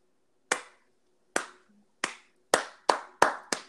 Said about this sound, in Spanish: Sí, un aplauso. No, no pienses en otras cosas. Al señor Claudio Castagnoli, alias el Superman suizo, alias el Salvador, alias mi luchador favorito del mundo mundial.